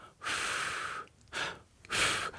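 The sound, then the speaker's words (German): A voice imitates a mother puffing to blow dust off all sorts of things: one long breathy blow followed by two shorter puffs, airy and hissing, fairly soft, with no talking. “Ne, und dann wird man so langsam wach und dann sieht man, wie die Mutter von allen möglichen Sachen den Staub wegpustet.”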